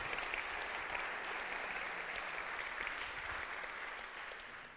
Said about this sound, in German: Ja, ich finde einen Applaus für die beiden, oder? Vielen Dank dafür.